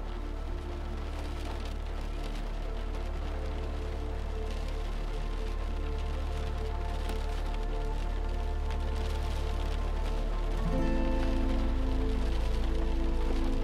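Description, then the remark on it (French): Steady rain falls and trickles outside, a soft continuous patter with a low droning hum beneath it that swells slightly near the end; no one speaks. “Les murs de la maison vous protègent de la pluie qui continue à tomber et à ruisseler.”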